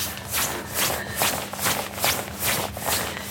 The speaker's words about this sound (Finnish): Seuraavat kaksi minuuttia kuuntelemme toppahuusien kahinaa.